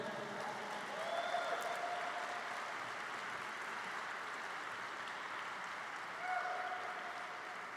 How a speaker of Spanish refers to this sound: y si le vas a aplaudir, apláudele fuerte al rey.